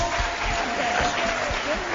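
An audience at Université Shalom de Bunia applauds a business management expert during a live special broadcast, with steady, dense clapping that fills the whole moment, a continuous crackling wash of many hands at an even, fairly loud level.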